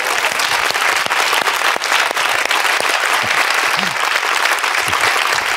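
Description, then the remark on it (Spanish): Sustained applause from an audience, dense clapping filling the whole stretch at steady loudness, with a few faint voices calling out underneath. “Eh, pueden aplaudir a un tonto, gracias.”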